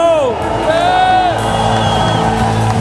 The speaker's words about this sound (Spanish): Da gritos de júbilo. Da gritos de júbilo.